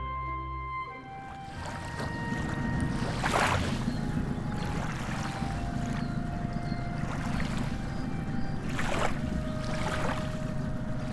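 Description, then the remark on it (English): A boat chugs steadily along a canal on a chilly day, its low engine rumble constant, with water swishing in brief surges every few seconds. No one speaks. “Watson, time to set sail. We're not, are we? Not on the canal. Oh, yes, we are.”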